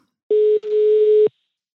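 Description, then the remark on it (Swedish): A single telephone ringing tone heard while a call to an agricultural adviser in Skåne, Sweden, connects: one loud, steady electronic beep lasting about a second, with a brief dropout near the start, and then silence. No one speaks. “Ja du, vi, eh, vi ringer upp dig eh, för att höra lite grann hur du ser hur situationen ser ut i fält.”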